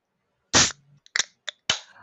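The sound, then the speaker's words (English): Four sharp, clap-like cracks with uneven spacing; the first is the loudest and fullest, and the later ones are shorter and lighter. No one speaks. “So I, I am still not ready for this clap.”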